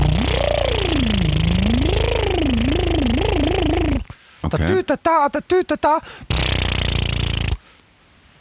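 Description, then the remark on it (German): A voice does a loud, buzzing lip trill as a vocal warm-up exercise, with a wavering, siren-like pitch that rises and falls, sounding like a police helicopter, followed by brief speech and a second stretch of trilling. “Das ist, es klingt zwar wie ein, ein Polizeihubschrauber, so”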